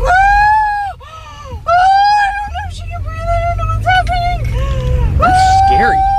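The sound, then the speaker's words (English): A woman giving birth in a moving car lets out a series of long, strained screams and wails, loud, over the steady low rumble of the car as her husband drives. “His wife is is delivering their child, and she's begging him for help.”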